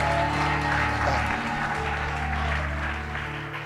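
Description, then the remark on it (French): A church audience claps and cheers loudly for the Lord together in a dense, steady roar that holds for several seconds, fading slightly at the end, over a low sustained hum. “Est-ce qu'on peut acclamer très fort pour le Seigneur”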